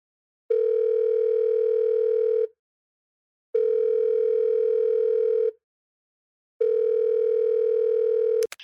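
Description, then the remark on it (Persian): A telephone ringback tone sounds three times as a call is placed to a guest, each steady buzzing tone lasting about two seconds with gaps of silence between, clear, cut off by a brief click at the end. “خب بریم که باهاشون تماس بگیریم”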